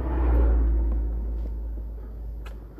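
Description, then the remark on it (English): A car engine rumbles by, a deep low-pitched drone that swells early and then gradually fades as it passes, with no voices over it. “It's the same car.”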